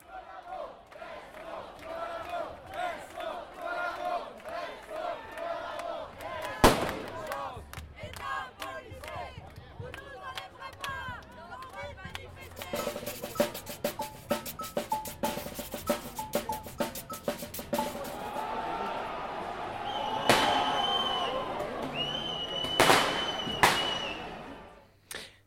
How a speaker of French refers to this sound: tout au long du cortège, les manifestants ont scandé des slogans hostiles aux policiers et aux services d'ordre des syndicats qu'ils appellent SO Collabo Écoutez.